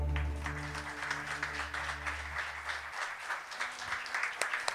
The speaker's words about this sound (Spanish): Denle un aplauso al Señor, mi hermano.